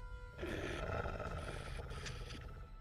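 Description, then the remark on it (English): A wolf snarls loudly, a rough, sustained growl rumbling for over two seconds after a brief quiet start, with no voices alongside it. “this this wolf above you, Zach. Mm-hmm. As you stick your hand out, it”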